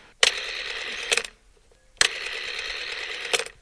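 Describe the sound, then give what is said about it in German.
A rotary telephone dial is turned right to the stop with a finger in a number's hole and released, twice, each pass a sharp click followed by a steady whirring ratchet that ends in another click, with a short quiet pause between the two dials. “Da steckst du den, deinen Finger in das Loch, wo die Zahl ist, und jetzt drehst du nach rechts bis zum Anschlag und lässt los.”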